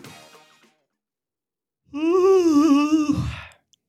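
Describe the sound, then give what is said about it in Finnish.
A single drawn-out, fairly loud yawn with a voiced, wavering groan that trails off into a breathy exhale. A brief soft breath comes first, then a quiet pause. “Alkaa haukottaa.”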